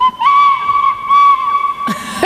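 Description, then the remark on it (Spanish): A voice mimics a seagull with a long, steady high-pitched whistling cry that swells twice in loudness, ending in a short breathy rush of air. No talking. “puedo hacer una gaviota.”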